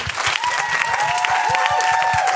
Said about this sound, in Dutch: Ik zou zeggen applaus voor jezelf en natuurlijk met name voor de sprekers hier ook